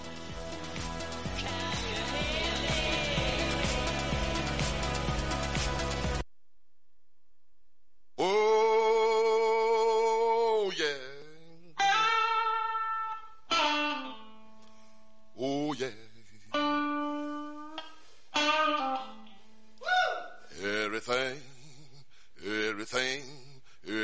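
A blues song plays loudly: a dense burst of band sound, a brief silence, then a strong male voice belting short sung phrases separated by punchy stop-time gaps.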